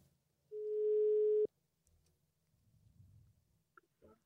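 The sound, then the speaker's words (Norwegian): A telephone ringing tone while calling: one loud, steady mid-pitched tone lasting about a second that cuts off abruptly, followed by faint low rumbling and a couple of soft clicks. “Vi ringer opp Knut, så snakker vi om, ja.”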